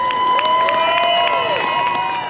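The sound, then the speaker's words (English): A loud crowd cheers and whoops together as hot air balloons lift off one by one, voices rising and falling in long shouts over a steady beat of rhythmic clapping that fills the whole short stretch. “Crowds cheer as the balloons lift off one by one in a colorful wave, some just seconds apart.”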